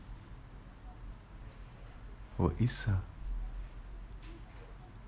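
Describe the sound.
A small bird chirps repeatedly in short, high, thin notes throughout, fairly faint and a little distant, while a person briefly speaks partway through.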